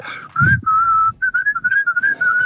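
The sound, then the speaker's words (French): A person whistles a short melody, clear and loud, with sustained notes breaking into quicker trilled phrases, alone without any talking. “De toute façon, quand on siffle, on n'est jamais vieux.”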